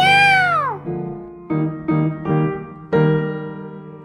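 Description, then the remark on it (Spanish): A cat meows once in a long, loud, falling cry, then gives a few shorter, lower meows in quick succession, with nothing else going on. “Este gatito les dice adiós.”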